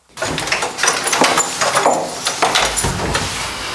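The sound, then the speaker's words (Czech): A heavy wooden door at the castle in Kunín near Nový Jičín is pushed open by the castellan onto a wooden bridge leading to the neighbouring church of the Holy Cross, with a few knocks and clunks over a few seconds of scraping, rattling movement. No one speaks. “Pan Kastelán právě otevřel dveře na unikátní most.”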